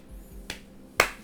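crowd, hand clapping

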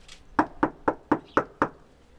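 impact, knocking on a door

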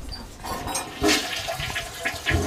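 household object, toilet being flushed

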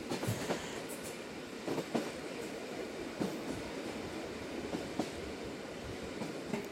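vehicle, train running on rails

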